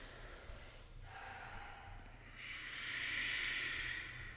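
Slow, deep breathing in and out through the nose: a softer airy breath, then a longer, louder rushing exhale through the nose, with no talking.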